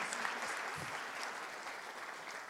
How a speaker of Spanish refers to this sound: Si va a aplaudir, le encargo que lo haga bien y con todo su corazón.